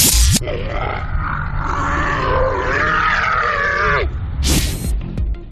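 A single long, drawn-out human moan with a wavering, gliding pitch lasts about three seconds, bracketed by brief bursts of harsh noise just before and after it.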